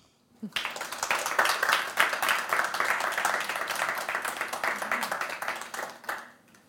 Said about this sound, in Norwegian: Så da er det bare å gi deg en god applaus.